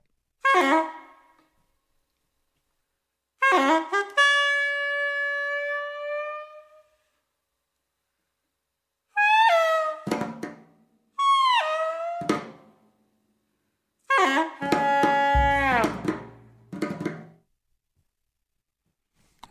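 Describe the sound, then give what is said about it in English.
A Glissotar, an acoustic wind instrument, plays five reedy, horn-like phrases separated by pauses, with sustained notes, sliding pitch bends and swooping glissandi, ending with a louder, buzzy passage over a low tone. “All right, and the next thing we're going to hear uh, is something called the Glissotar.”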